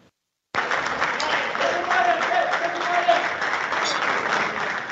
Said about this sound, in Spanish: Ah, como aplauden los acahuetes, ¿eh?